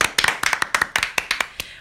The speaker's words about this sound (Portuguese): Parabéns, palmas.